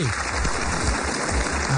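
A steady wash of applause for a quoted line from the book Mujer Amorallada, dense clapping from many hands at an even, moderate loudness throughout, with no voices standing out above it.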